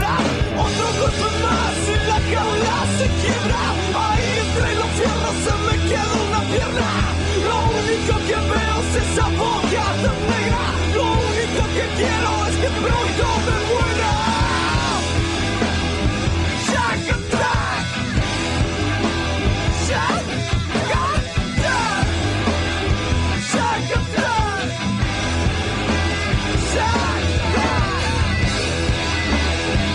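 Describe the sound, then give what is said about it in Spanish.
A loud, dense rap rock track by a band formed in Rosario, Argentina, in 1994, from its only album released in 1997, with heavy distorted guitars and pounding drums, shouted vocals barking over the mix at a steady driving pace for the whole stretch. “una banda de rap rock que supo realizar uno de los mejores discos del estilo en Argentina.”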